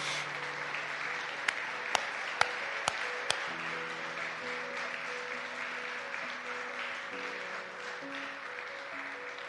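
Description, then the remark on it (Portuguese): An audience applauds Christ steadily for the whole stretch, a dense, even wash of clapping over low sustained musical tones, with a few sharp clicks standing out near the start. “Dê um aplauso a Cristo, por favor.”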